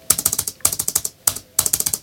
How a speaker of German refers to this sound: hier meine Laptop-Tastatur, das ist so eine Gummido, äh, einfache Tastatur.